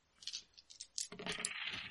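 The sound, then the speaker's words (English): Dice clatter on a hard surface during a tabletop game roll: a few sharp clicks at first, then a busier stretch of rattling and tumbling. The sound is fairly quiet, with no voices. “Uh, and you're rolling against its average, so it's just two purple”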